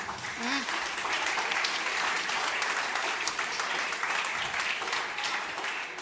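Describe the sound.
Steady audience applause fills the whole stretch, a dense, even patter of many hands clapping at a consistent loudness, with a brief faint voice or whoop near the start.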